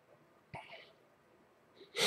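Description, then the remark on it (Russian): A sharp breathy burst, then a short hiss and a quick intake of breath, ending in a loud, explosive sneeze. No one speaks. “Будь здоров.”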